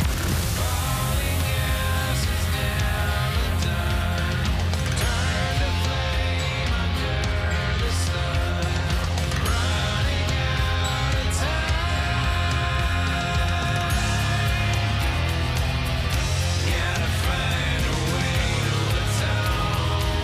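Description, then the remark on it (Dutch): A full-band rock song, a single from the new solo album by a band singer a singer, plays at steady, loud volume, with driving bass and drums under dense guitars and cymbals. No vocals stand out, and the mix stays constant throughout. “Het gaat … heten, komt eind oktober uit en dan zo heet de single.”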